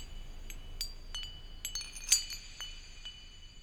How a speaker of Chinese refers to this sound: 从三月二日 … 至四月四日，教授还是回到古典作曲，忧郁或者奇异的曲调，都以终曲三月四日中的环境录音作结。最后的最后，渐弱的风铃声，又让他从作曲回到声音本身。